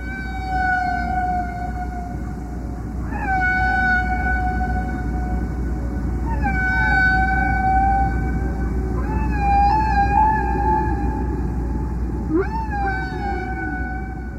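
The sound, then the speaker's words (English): Underwater whale song: long, tonal moans with rising, swooping harmonics, repeated in phrases every few seconds over a steady low rumble of ocean noise, with no one speaking. “the significance is that whales, uh, like people, are composers. The songs are very complex.”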